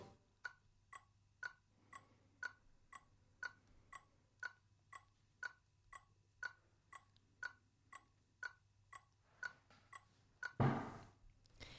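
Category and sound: household object, clock ticking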